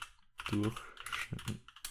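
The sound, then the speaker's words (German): Rapid clicking of computer keys being typed on a newly bought keyboard, a burst of uneven taps with a brief voiced sound mixed in partway through. “Boah, ich habe mir nur eine Tastatur gekauft und, was, und bei der muss ich mich auch erstmal ans Schreiben gewöhnen.”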